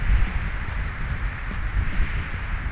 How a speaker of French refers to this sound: Le vent qui souffle, le vent qui agite les feuilles de la plante de maïs de l'histoire que nous écoutons en ce moment.